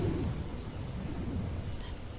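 thunderstorm rumble

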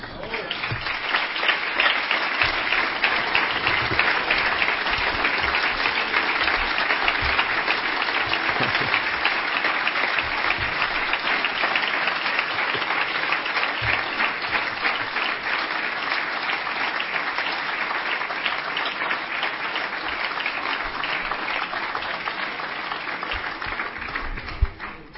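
audience applause

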